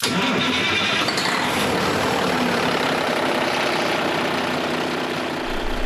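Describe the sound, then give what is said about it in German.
The diesel engine of Captain Carsten Lepin's ship, a supplier vessel for Ørsted, starts up and settles into a loud, rough, continuous rumble with a gritty clatter, for several seconds with no voices; at full power such an engine burns 150 liters of diesel. “Denn wenn der den Motor anmacht, dann klingt das heute noch so.”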